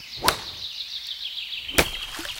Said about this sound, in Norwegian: Så hører vi lyden av et golfslag.